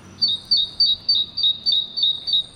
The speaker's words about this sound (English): As a consequence, great tits in London, Paris, and Berlin have modified their behavior. They now sing at a higher pitch and faster than normal. One way they do this is to drop the lower pitch notes from their song.